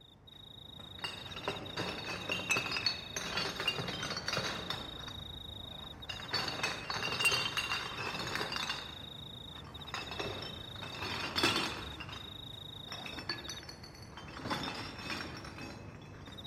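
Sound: glass bottles clinking together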